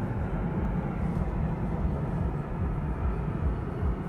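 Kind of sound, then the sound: vehicle, airplane flying past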